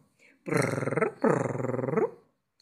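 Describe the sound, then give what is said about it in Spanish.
A voice imitates the purr of Federico, a cat in a children's story by Leo Arias: two long, rhythmic rumbling breaths with a fast fluttering pulse, low-pitched and fairly loud, separated by a short pause. “Me dijeron que se llama ronroneo.”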